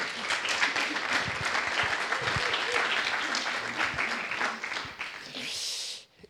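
A crowd applauds steadily, a dense wash of many hands clapping at an even loudness for about six seconds before it quickly dies away. Some faint voices are mixed in.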